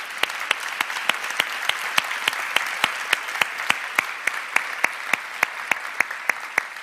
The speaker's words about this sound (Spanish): Yo digo amén y dale un fuerte aplauso a Jesús.